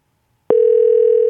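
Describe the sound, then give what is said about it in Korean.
After a moment of silence, a loud, steady electronic telephone tone starts and holds unbroken to the end, like a call ringing through on the line and going unanswered. No voices. “제발 받아줘.”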